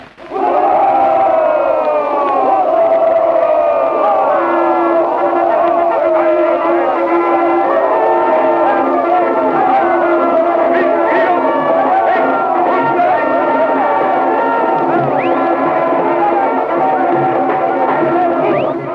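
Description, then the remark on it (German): A dense, continuous swell of brassy march music plays at steady loudness, with a few faint, sharp shot-like cracks scattered in the background and a crowd-like roar blended underneath, representing the Battle of Liège. “Die wird hier auf ein paar Sekunden Marschmusik verdichtet mit ein paar angedeuteten Schüssen im Hintergrund.”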